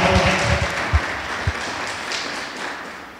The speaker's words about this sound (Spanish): ¿Cuántos están conmigo? ¿Le puede dar un aplauso al Rey de Reyes?